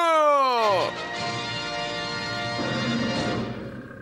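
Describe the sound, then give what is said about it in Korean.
A deep, loud lion roar bursts out with a falling growl, then holds as a rough, rumbling bellow for several seconds before fading slightly at the end. “음, 캐롤이 안 나오네. 나오는 줄 알았는데. 알겠습니다. 사자 소리가.”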